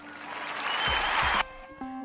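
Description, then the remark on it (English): A loud burst of crowd applause, dense overlapping clapping that stops abruptly after about a second and a half, leaving a quieter steady tone behind. No one speaks. “And if you're back at this channel and if you've listened to my podcast before and you're listening again, I just want to give you guys a round of applause.”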